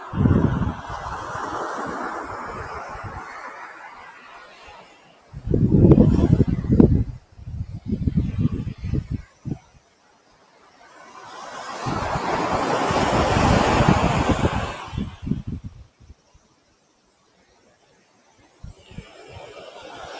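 Afternoon ocean waves wash in against the shore at the seaside in Hayama in slow surges, each swell building into a broad roar and then ebbing away, with gentle wind noise in between and no voices.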